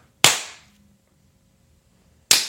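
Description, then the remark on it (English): Two sharp, loud hand claps made to sync the audio of a recording, roughly two seconds apart, each a bright slap with a short ringing decay, separated by near silence and no voices. “Sync the audio. Here comes a clap.”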